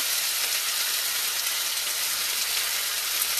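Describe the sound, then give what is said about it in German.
Chopped onions sizzle steadily in hot frying fat, a loud, continuous crackling hiss that holds even for a few seconds with no voices over it. “Und jetzt haben wir mal die Zwiebel rein. Hörst Oh, geil, ne?”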